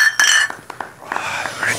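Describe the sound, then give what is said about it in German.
Glasses clink together in a toast, a few sharp taps with a short bright ring after the first, followed by softer knocks and quiet background murmur. “Prost.”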